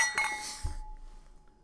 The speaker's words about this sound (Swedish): Ska vi, ta, kan vi spela in en skål? Alltså, det vill... mm -hmm. Säg något. Skål! Skål!